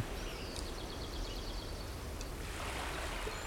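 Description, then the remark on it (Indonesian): A steady, continuous wash of beach waves fills the background, with a few faint bird chirps early on and no voices. “gue mau pindah sekarang ke pantai nah wah enak banget di pantai udah seger”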